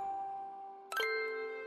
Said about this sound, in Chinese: 叮咚叮咚，叮咚叮咚，门铃响了。